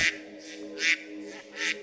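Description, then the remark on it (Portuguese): Mallard ducks, counted in the dozens or hundreds along the banks, quack in a steady run of about five nasal calls spaced roughly half a second apart, with a faint outdoor hum beneath and no talking. “O macho de pato real é muito mais colorido do que a fêmea.”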